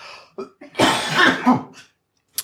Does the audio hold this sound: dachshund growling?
no